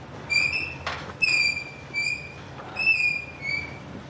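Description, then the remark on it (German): A large rotating brush in a cow barn, on which the cows can massage themselves, giving off a series of high, whining squeaks in a loose rhythm, with a brief scraping rush between them, moderately loud. “Die rotierende große Bürste, an der sich die Kühe massieren lassen können.”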